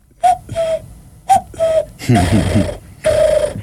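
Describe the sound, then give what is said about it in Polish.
A person whistles bird-like calls with their mouth, using no instrument, in the way they lure birds: short paired chirps in a steady pitch followed by longer warbling notes, with breathy bursts between phrases and no talking. “Teraz w Cegłowie, jak mieszkam, to nawet potrafię ptaki wabić w ten sposób.”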